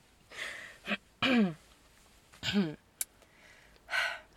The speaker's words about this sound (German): Aber ich habe das Gefühl, ich muss mich räuspern.